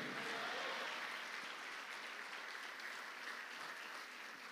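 crowd, audience clapping

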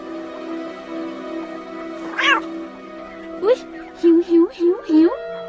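animal, wild cat meowing

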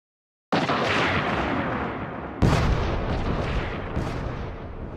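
sound effect, explosions

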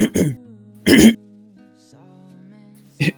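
human body sound, cough and throat clearing

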